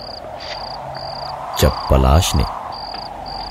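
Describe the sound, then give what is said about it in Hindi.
Crickets chirp in steady, evenly spaced bursts throughout on a deserted road at night, a continuous high trill in the background, while a man speaks briefly midway over them. “सड़क पे रात के अंधेरे में उस सुनसान सड़क पे चला जा रहा था जहां झिंगुरों की आवाज के साथ साथ रह रह के कुत्ते भौंक रहे थे”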